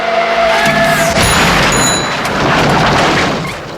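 At night, a car with its headlights off whines and skids, then slams into a person with a loud crash, followed by a rush of scattering debris and tinkling glass. No one speaks.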